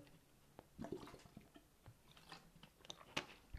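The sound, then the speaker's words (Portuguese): Someone takes a sip of water, with soft gulps, wet mouth clicks and a brief swallow, quiet and without any talking. “Vou só beber um gol de água, pera.”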